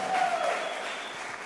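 A church audience applauds for Jesus in a steady, dense wash of clapping that holds at a fairly even level throughout. A faint tonal note briefly rides on top near the start.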